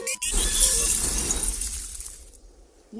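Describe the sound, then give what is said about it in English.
A spaceship with engine failure crash-lands on DKE Toy Planet: a loud crash with glass shattering, bright tinkling debris over a low rumbling thud, decaying over about two seconds before a brief new sound at the end. No voices. “DOV2, we have engine failure. We must crash land on DKE Toy Planet.”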